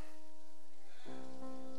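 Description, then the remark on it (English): Soft, steady rain hisses faintly in the background while sustained tonal notes hum over it, shifting to a fuller chord partway through. No one speaks. “Ah, it's raining, yeah.”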